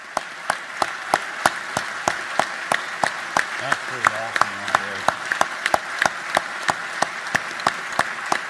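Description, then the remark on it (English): Sustained standing-ovation applause from a large crowd at a joint session of the Georgia General Assembly under the Gold Dome, during Governor Brian Kemp's State of the State address, after mention of Senator Johnny Isakson, with some rhythmic clapping and a few voices briefly audible underneath around the middle. “And another standing ovation there.”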